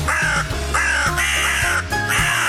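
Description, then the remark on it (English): A loud crow sound effect introducing the Early Crow segment on Racing HQ: harsh, raspy caws repeat in quick succession, about four calls over a couple of seconds, prominent with no one talking. “It's time now for our early crows.”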